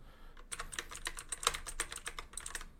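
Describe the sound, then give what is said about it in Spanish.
Quick, irregular clatter of keys as a note is typed on a keyboard, a steady run of crisp clicks with no voices. “Voy a anotarlo ya, porque se me va.”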